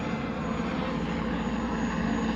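A helicopter roars overhead, dropping gas grenades during a clash between demonstrators and police. It is loud, its engine and rotor noise a steady unbroken drone with a faint low throbbing running through it. No voices are heard.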